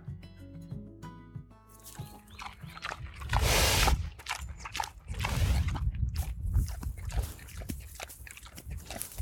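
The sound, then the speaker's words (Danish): Wet smacking and chewing from a sow eating grass in a pig fold on a windy day, with a loud tearing bite partway through and steady munching afterward; a few low tonal sounds open before the eating begins. “Solen smasker løs, inden den bider af græsset igen.”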